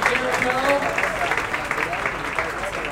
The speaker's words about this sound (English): applause to them.